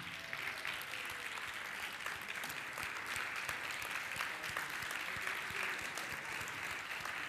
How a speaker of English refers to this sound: So let's have these men stand and we're going to applaud these men.